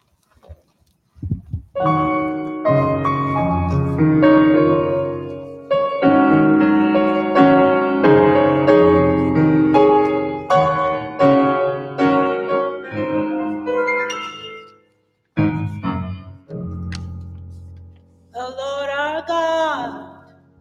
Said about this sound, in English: At this time, I ask that you will hear the music ministry. God bless you.